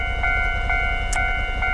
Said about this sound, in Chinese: 哎，又有火车，我小时候真的很喜欢看火车。